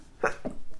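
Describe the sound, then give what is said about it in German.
A single quick sneeze comes in two abrupt bursts, a sharp intake-like burst followed by a shorter, lower one, with no talking around it. “Gesundheit.”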